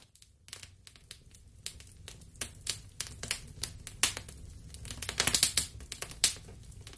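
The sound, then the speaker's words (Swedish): A crackling fire pops and snaps in irregular bursts over a low, steady hum, the crackles fairly sharp, growing busier toward the end. No one speaks. “Ja, vem känner inte ett sorts lugn och känsla av hemtrevnad infinna sig av det där ljudet? Eld har ju faktiskt funnits med oss människor så länge genom historien att det av många spekuleras vara anledning till varför vi känner så starkt för elden.”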